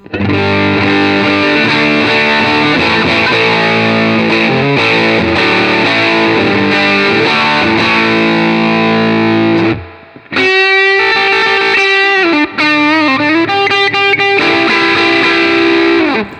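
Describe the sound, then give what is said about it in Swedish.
A guitar played through an amp with the gain turned to full and the tone at its most treble setting, thick and heavily distorted with bright, treble-heavy tone; sustained chords ring for ten seconds, break briefly, then choppier bending notes follow. Loud throughout, no talking. “Dra upp den också till full gain.”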